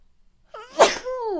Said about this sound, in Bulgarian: Кихнах, приятели. Няма да го изтрия това. Благодаря, ако сте ми казали на здраве.